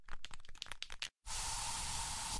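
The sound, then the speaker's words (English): An aerosol can of bug spray, used inside a home, rattles through a quick series of shakes, pauses briefly, then releases a steady, loud hiss of spray for over a second. “So you just used bug spray in your home.”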